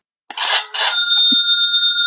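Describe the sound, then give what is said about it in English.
A Stripe payment app's sale notification chime: two quick bright metallic strikes, then a high ringing tone that lingers to the end. Loud, with no voices. “You can take a vacation and you'll get mm-hmm. these Stripe notifications that mm-hmm. uh, you got a sale.”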